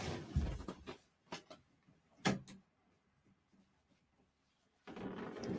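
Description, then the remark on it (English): A studio door and its lock being handled as the lock is double-checked: a series of sharp clicks, rattles and knocks, with quiet pauses between them and a low rumble at the end. “i swear that i put the lock on i don't know how she's entering let me just double check”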